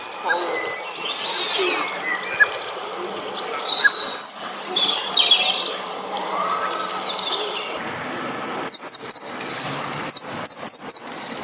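A starling sings alone: bright, sliding whistles that swoop downward, then a run of sharp, rapid clicks and rattles near the end, with soft background noise throughout.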